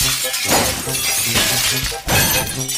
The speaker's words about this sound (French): Ensuite, nous allons ensemble péter quelques vitres.